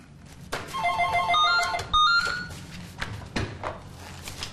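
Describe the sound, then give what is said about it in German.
A telephone rings in the office of a waste disposal company with a bright electronic trill of rapid repeating tones, fairly loud, followed by a handset being picked up with a soft clunk and some faint background noise. “Am Telefon beantwortet sie Fragen zur Entsorgung von Abfällen und Wertstoffen.”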